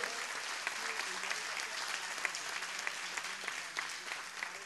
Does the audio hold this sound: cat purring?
no